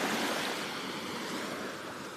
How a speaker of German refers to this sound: Ihr könnt dann noch ein bisschen Wellenrauschen hören